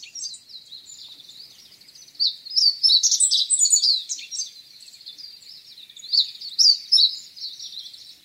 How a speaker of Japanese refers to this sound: ホウチロのさえずりが暴風林に響いていきます